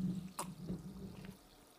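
HEB-brand sparkling mineral water, labeled 1877 mineral water, being poured, with a brief splashy burst near the start and a soft, steady fizzing hiss continuing underneath for under two seconds; no one speaks.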